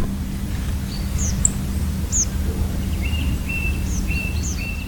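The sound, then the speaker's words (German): Short, high, thin tree pipit flight calls, a metallic chirp repeated irregularly about half a dozen times over a steady low rumble, fairly faint, with no talking. “Und das nicht nur an seinem Gesang, sondern auch im, hat einen sehr eigentümlichen metallischen Flugruf.”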